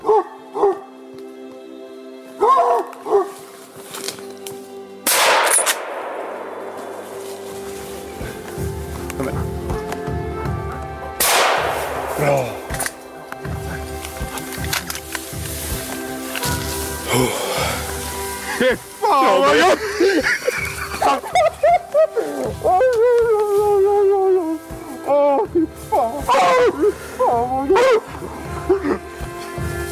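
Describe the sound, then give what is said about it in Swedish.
Two loud, sharp gunshots fired while hunting ring out about six seconds apart, each with a brief echoing tail, amid an outdoor scene where dogs bark and yelp excitedly throughout. “Så när, det var bara upp och, upp och skjuta. Jag tänker att vi skulle kunna spela upp uh, lite, lite snabbt bara hur det, hur det lät.”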